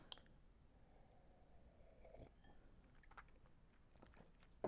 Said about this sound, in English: Here one second, let me get a sip of my Cabernet Sauvignon.